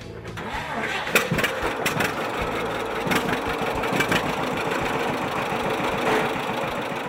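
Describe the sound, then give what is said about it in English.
A restored 1949 John Deere A tractor engine runs loud in Massachusetts, a steady rumbling chug with rapid, uneven popping beats that sounds like it is just starting up. “This is a 1949 John Deere A that was purchased down the street.”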